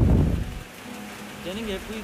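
Steady rain patters and hisses, with a low rumbling burst at the start and a faint voice murmuring briefly near the end.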